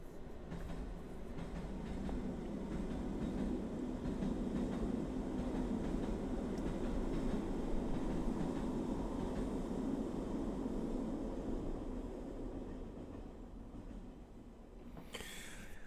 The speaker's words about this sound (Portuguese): Olha o comboio!